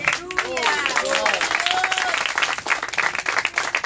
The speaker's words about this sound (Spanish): Alguien le puede dar palmas a Jesús.